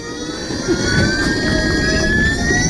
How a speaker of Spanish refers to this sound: ¿Vosotros os veríais alguna vez corriendo en un coche con este ruido? Pero perdona, ¿es un coche o una batidora?